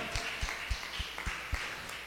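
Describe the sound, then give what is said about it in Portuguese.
A crowd applauding the Lord claps together in a steady, even rhythm, with sharp beats about four times a second over a dense wash of scattered hand claps, fairly quiet. “Aplauda mais uma vez ao Senhor.”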